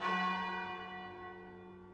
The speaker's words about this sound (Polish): Dzwony kościoła wybijają południe.